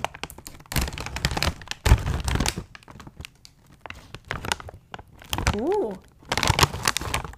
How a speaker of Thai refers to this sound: แต่ว่าวันนี้ที่เราเลือกหยิบมาเนี่ย ก็คือเป็นขนมปังกระเทียมค่ะ อ่ะ มาลองแกะกันดู